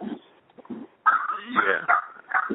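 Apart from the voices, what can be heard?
dog whimpering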